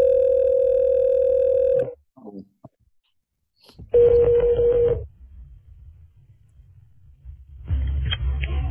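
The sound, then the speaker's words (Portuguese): A telephone ringback tone sounds in repeated steady bursts, each about a second long with pauses between, heard clearly as an outgoing phone call, the first call being placed, waits to connect. “Vou começar aqui a primeira ligação agora.”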